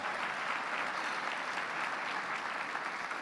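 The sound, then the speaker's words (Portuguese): Steady applause from an audience, a dense wash of many hands clapping at an even level for a few seconds without a break, with no voices standing out. “Se isso é uma verdade para você, aplauda.”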